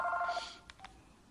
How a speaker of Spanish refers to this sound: Teléfono, abuela.